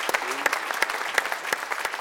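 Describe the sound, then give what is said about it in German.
A crowd applauding steadily to greet a reporter at BVB's annual general meeting in Dortmund, dense overlapping claps forming a continuous bright patter with a few sharper individual claps standing out, no talk on top. “Wir grüßen dich mit einem Applaus.”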